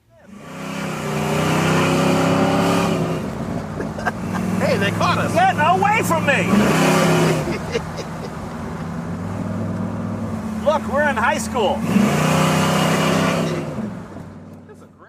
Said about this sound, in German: Den Motor, den müssen wir uns jetzt mal ganz kurz gemeinsam anhören. Klingt schon geil irgendwie.